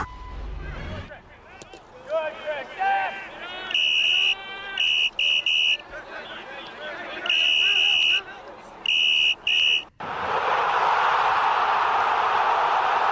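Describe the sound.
Sounds from a football match in Croatia: several loud, shrill whistle or horn blasts over excited voices, then a steady roar of a large stadium crowd fills the rest.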